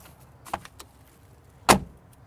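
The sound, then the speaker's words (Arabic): A G-Class car door slams shut with a solid, sharp metallic clack, preceded a second earlier by a lighter latch click; otherwise quiet, with no talking. “هلا ما كان فيني افتح الباب وسكره عشان اسمعكم الصوت احلى شيء بالجي كلاس هالاصوات اسمع لا تقول لي شفت مو شفت اسمع الصوت حتى حتى في الابواب هذه”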